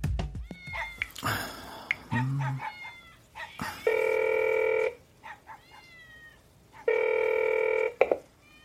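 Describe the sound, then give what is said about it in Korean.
Two loud, steady ringback tones of about a second each sound through a mobile phone line as a call goes unanswered, while a cat meows several times in the background before and between the rings. “휴대전화로 몇 번이나 연락을 해도 받지 않았다.”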